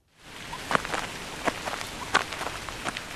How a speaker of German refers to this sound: An diesem Morgen regnet es.